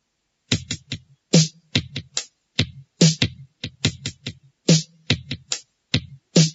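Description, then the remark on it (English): A series of sharp hand claps beats out a rhythmic pattern, some quick doubles and some spaced singles, steady and fairly loud, with no voices, clapping along to a grammar rap practice exercise. “Listen, then clap and practice.”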